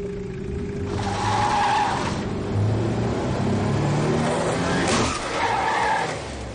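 A car engine roars while tires skid and screech in two loud bursts, the second marked by a sharp jolt as one car rams into a police inspector's car.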